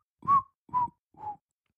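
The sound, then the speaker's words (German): Someone whistles three short, separate notes, each a little lower than the last, with an airy, breathy edge around the tone and quiet in between. “Ja, war, war ganz stark gepfiffen, auf jeden Fall.”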